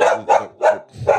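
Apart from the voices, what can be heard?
dog barking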